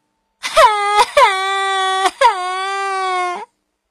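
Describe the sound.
A voice imitates a baby owl crying: a few long, wavering wails with a dipping pitch, broken by short catches of breath, loud and on its own with no talking.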